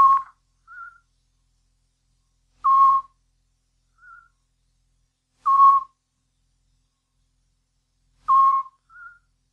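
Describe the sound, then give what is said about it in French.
A Eurasian scops owl gives four short, clear whistled notes at a steady pace, each followed by a fainter, slightly higher-pitched answering note, with silence in between. “Le petit duc.”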